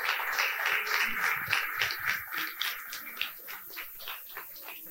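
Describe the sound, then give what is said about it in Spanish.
A crowd applauds steadily for the people celebrating birthdays, a dense wash of many hands clapping that thins into scattered individual claps toward the end. “Y quiero que le den un fuerte aplauso a los cumpleaños.”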